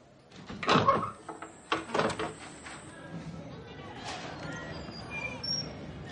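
A door opens: a couple of sharp clunks and rattles from the latch, a thin high squeal holding for a couple of seconds, then softer shuffling and low background noise. A young woman opens the door and two women go out.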